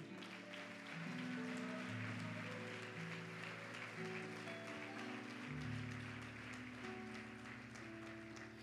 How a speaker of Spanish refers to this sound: Dele ese aplauso a Él.